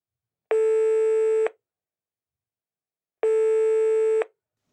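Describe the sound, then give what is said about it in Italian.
A phone line's ringback tone of an outgoing call purrs twice, each steady one-second burn followed by a long silent pause, clear and fairly loud with no voices or other sounds around it. “Fatemi fare una telefonata veloce.”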